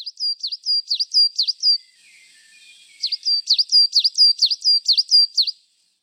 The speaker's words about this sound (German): Ja, da hätten wir die Tannenmeise, die macht ein anderes Geräusch als die Kohlmeise. Man wird erinnert, aber sie macht so ein Witsche, Witsche, Witsche.